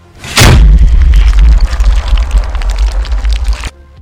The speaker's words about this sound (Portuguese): Ele vira para ti e ele aponta a tonfa e ela dá um disparo de energia.